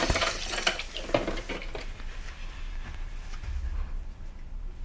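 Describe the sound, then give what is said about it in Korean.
Dishes and cutlery clink and clatter in a series of sharp, irregular knocks as dishes are washed, busiest in the first two seconds, over a low background hum, with no talking. “어, 아빠, 설거지 제가 할게요.”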